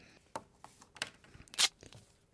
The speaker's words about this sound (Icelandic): Það er að rífa plástur á ykkur. Já, það er nefnilega að vera að rífa plástur á ykkur. Akkurat. Sumum finnst betra sko að rífa plásturinn rætt, öðrum finnst betra að rífa hann hægt.